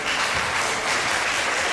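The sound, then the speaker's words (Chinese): Audience applause at a worship gathering, welcoming people attending for the first or second time, a dense, steady wash of many hands clapping at once, sustained at an even loudness with no voices over it. “我们请我们当中今天第一次或者第二次到我们当中来敬拜神的，啊，请他站起来，我们热烈的掌声来跟他”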